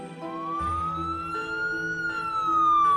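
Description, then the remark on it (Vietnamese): A police patrol car siren wails steadily as the patrol car races toward the scene, its tone slowly rising and falling in a long sweep, fairly loud, with low engine and traffic rumble beneath and no voices. “Có tiếng còi của cảnh sát tuần tra, phía sau là tiếng xe tuần tra đang lao tới.”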